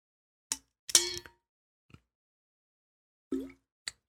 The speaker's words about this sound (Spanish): tomamos un poquito de agua y continuamos.